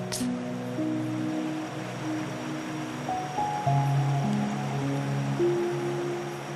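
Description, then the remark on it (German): Steady, continuous rush of river water flowing at a moderate level, with soft sustained musical tones drifting and changing pitch underneath. No one speaks. “Du läufst zum Fluss und lässt dir das frische Wasser über deine Hände laufen.”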